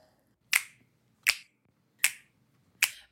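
Four crisp finger snaps in a steady, even rhythm, each a sharp bright click with a quick decay, sounding alone with no talking.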